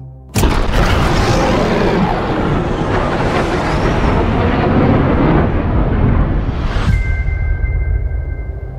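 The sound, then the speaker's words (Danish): A loud cinematic boom from an action film trailer hits abruptly and swells into a dense, roaring wall of rumble and whooshing sound, ending with a rising sweep and a sustained tonal hum, no voices present. “lad os lige prøve at høre bare 30 øh, sekunder her, eller 40 sekunder fra, fra traileren til Top Gun 2”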